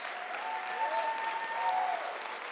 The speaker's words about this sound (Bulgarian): Слава на Исус! Ако ръкопляскаш, ръкопляскай за Исус. Ако викаш, викай за Исус.